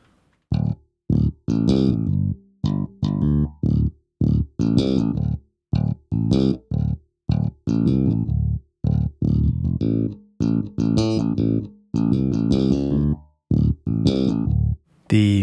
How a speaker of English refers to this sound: I didn't have a bass guitar, so I turned to my software library. You can hear there's a little bit of fret buzz in the bass guitar too. Take a listen to how you can hear what sounds like the strings actually buzzing on the fretboard.